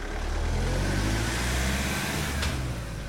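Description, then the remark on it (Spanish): A van's engine hums steadily from inside the moving vehicle on the drive from Moscow to Star City, Russia, with a continuous low rumble and road noise throughout, and a brief hiss partway through. “Y desde allí monto en una furgoneta hasta la ciudad de las estrellas, Rusia”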